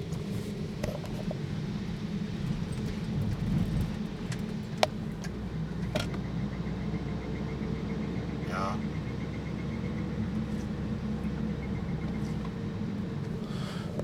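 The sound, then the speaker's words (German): Steady low road rumble inside a moving car, with an odd intermittent ticking and a brief squeaky chirp coming and going over the engine drone; the noise seems to come from the front right of the car. “Ach, mein Auto macht auch wieder mal Geräusche.”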